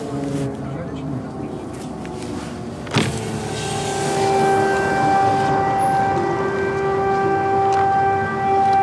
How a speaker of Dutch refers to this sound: Wat misschien ook niet helemaal veilig is en het luchtalarm gaat af hier in Lviv. En helemaal niemand reageert erop.